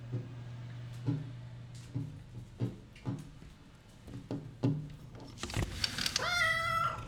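A feral black cat meows near the end, a drawn-out, wavering cry, after a series of soft knocks and clatters over a steady low hum.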